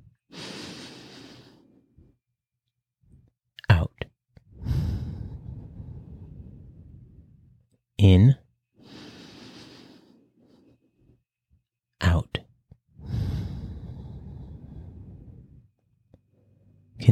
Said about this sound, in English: We'll take a deep breath in, breathing through our nose for four counts, and release. Once again, breathing through our nose for four counts. Let's begin. In.